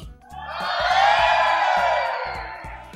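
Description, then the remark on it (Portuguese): A live crowd erupts in loud cheering and whooping to vote for Jurassic Park, swelling to a peak and holding for a couple of seconds before tapering off, with steady low rhythmic thumps underneath. “Deixa a plateia a escolher. Vai, vai decidir.”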